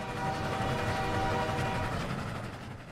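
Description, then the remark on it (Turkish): A train rumbles steadily along the tracks at a railway junction in the Afula region, loud, with a drawn-out horn sounding over the rolling noise for a second or so before fading back into the clatter. “Mesela Ürdün'ün Afullah bölgesindeki demiryolu kavşağında bir aile dostları çalışıyordu.”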